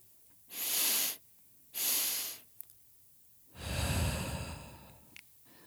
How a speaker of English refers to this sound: NSDR utilizes physiological sigh or a structured double inhale followed by elongated exhale